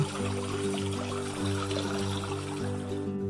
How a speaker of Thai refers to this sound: วันหนึ่ง ลูกหนูก็เดินเล่นไปเรื่อยๆ มันเดินตามเสียงของน้ำในลำธาร